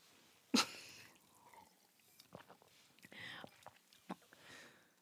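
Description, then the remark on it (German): A sharp clink of glasses in a toast at the start, then quiet sipping and swallowing with soft mouth clicks and breaths as two people drink in small gulps. “wir haben beide getrunken, weil wir beide menstruierende Personen sind”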